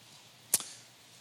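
A single quick, crisp swish of a thin Bible page being turned to Philippians chapter 3, with a faint second flutter just after, standing out briefly against the quiet. No one speaks.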